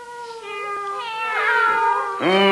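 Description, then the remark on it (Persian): Cats meow in a steady, continuous chorus: long, high, whiny cries that slide downward in pitch, ending with a louder, sharply rising meow. No one speaks. “اینقدر میا میا ران اندازین بیچارتون ها”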